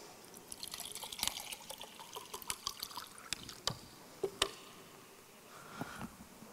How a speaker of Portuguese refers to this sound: O que, é que eu tenho na minha mão? um copo d'água. Você, você viu que é um copo d'água? Você sabe que é um copo d'água primeiro porque você está olhando, é um líquido transparente porque você viu o que eu estava colocando dentro.